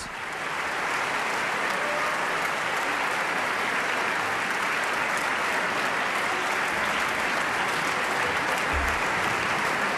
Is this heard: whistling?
no